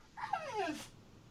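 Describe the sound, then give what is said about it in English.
A dog whimpers in a single drawn-out whine that slides downward in pitch, ending in a brief breathy huff. It is fairly quiet, and there is no talking. “So yeah, I feel the I feel the way the dog does.”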